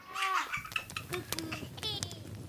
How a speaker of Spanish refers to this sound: Dice, hay tres cosas en la vida que nunca te cansas de mirar. Una es el mar, cómo juega un niño.